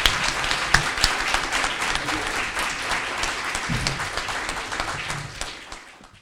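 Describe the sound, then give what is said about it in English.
An audience breaks into a round of applause, a dense, crackling wash of many hands clapping that holds steady for several seconds before tapering off at the end. “a round of applause.”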